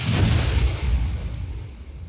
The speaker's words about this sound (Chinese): 砰！内丹和无风剑同时被能量的爆炸反震而回。